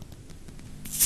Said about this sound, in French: Il a tremblé pour ouvrir sa bière. Ouais, ouais, j'attends d'ouvrir ma bière exprès pour le mot de la fin, là, tu vois.